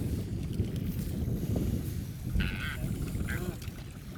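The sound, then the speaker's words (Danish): Two short, nasal bird calls from albatrosses flying over a tuna-fishing boat cut through a steady low rumble of wind and boat noise, the first call longer and the second a brief squawk. “Og det er altså dem, der siger den der lyd.”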